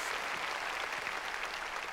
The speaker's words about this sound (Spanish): Démosle palmas fuertes Gloria a Dios.